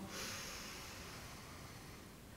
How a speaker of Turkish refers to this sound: İlk beni bir sakinleştirelim burada. O zaman şöyle dörde kadar sayıp nefes alıyoruz. Altıya kadar sayıp nefes veriyoruz.